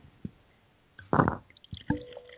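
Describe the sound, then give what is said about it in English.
A short pour of Amavi Syrah wine into a glass for a tasting, a burst of splashing gurgle followed by a few soft drips and a faint ringing clink, fairly quiet with no talking. “And um, let's go ahead and just pour that.”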